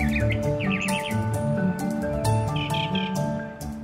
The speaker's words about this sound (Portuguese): O Mimos Poliglotos é o vulgar tordo, cujo canto nos acompanhou ao longo de toda a visita.